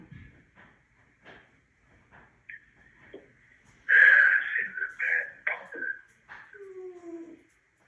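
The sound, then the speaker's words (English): Dogs whimper and whine, thin high-pitched cries that start faint and scattered, then swell into a louder run of whines and snuffly breaths before trailing off. “Please let the dogs out.”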